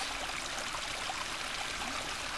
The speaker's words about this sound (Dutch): het geluid wat het meest opvalt, dat is dat van eh, water dat over een trap naar beneden komt. Een heerlijk rustgevend geluid.